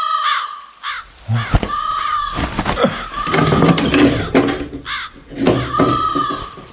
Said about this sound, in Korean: 깍깍 하고 까마귀 소리에 얼른 일어나 문을 열었다. 바깥은 아직 아주 어둡지 않았다. 또 깍깍 하는 소리에 쳐다보니 지나가면서 오는 소리가 아니라 바로 그 전나무 삭정이 가지에 시커먼 세 마리가 웅크리고 앉아 그러는 것이었다. 아, 까마귀.